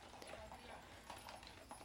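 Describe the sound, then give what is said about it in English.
Steady clip-clop of horse hooves on pavement as a horse-drawn carriage moves at an easy walking pace on a 15-minute ride between the two nines of an island resort golf course in Michigan, with a soft outdoor background hum. “A leisurely 15 minute horse drawn carriage ride between the nines include parts of the island unseen by many visitors”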